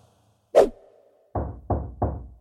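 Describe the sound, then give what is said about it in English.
A sharp bang is followed by three heavy, evenly spaced knocks on a door, loud, with no voices present, as the men of the city beat at the door of the house. “Now, as they were making their hearts merry, behold, the men of the city, certain sons of Belial, beset the house round about and beat at the door and spake to the masters of the house.”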